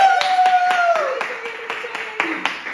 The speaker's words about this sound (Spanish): ¿Que quiénes son? Sentir Cáceres Televisión. Aplauso grande para Sentir Cáceres Televisión. Muchísimas gracias por tenernos una temporada más.